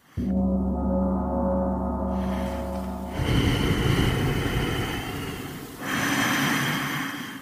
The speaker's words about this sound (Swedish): Ja, men jag andades på ett speciellt sätt. Jaha. Jag andades liksom så att det blir lite långsammare in och utandning. Det är det det handlar om.